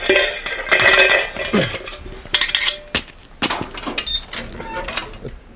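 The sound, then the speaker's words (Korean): Keys jingle and clink in a string of bright metallic bursts, followed by a few sharper mechanical clicks of a lock being worked open on the door of a long-empty house where a distant relative once lived. No one speaks. “열쇠가 여기 어디 있다고 했는데.”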